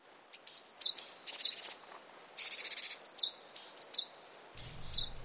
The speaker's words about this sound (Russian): Когда появилась желтая птица, она испустила волну цветочного аромата, застилавшего глаза птица опустилась на ветку абрикосового дерева, словно в объятия, и начала красиво петь.